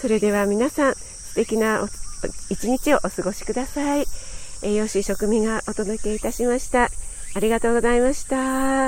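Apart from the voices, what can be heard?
cicadas chirping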